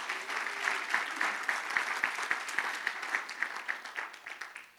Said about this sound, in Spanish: ¿Cuántos dan un aplauso al Señor por esto?